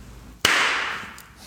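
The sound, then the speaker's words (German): One sharp, loud hand clap sounds out of near silence, followed by a hissy wash of noise that slowly fades over about a second. No one speaks. “Wollen wir Orlando nochmal mal auf unsere Tonspuren mal ein Klatschen spendieren?”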